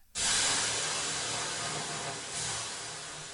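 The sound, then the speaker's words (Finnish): Water hits hot sauna stones with a sudden loud hiss that holds steady, briefly dips, then surges again before fading slightly, a bright, broad steam rush with no voices. “Nyt heitämme löylyä ja sitten lähdemme varsinaisiin yleisökysymyksiin.”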